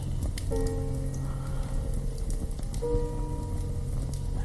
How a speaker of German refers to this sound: Knistern des Feuers in einem Kamin. Dieses Knistern hat etwas Magisches an sich.